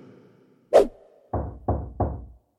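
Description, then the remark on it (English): Knocking on a door by someone delivering a package, fairly loud: one sharp rap followed by three heavier, evenly spaced knocks, each thudding briefly before fading, with no voices. “Uh, I've got a package for you. Yeah, you can just leave it. You don't need to knock.”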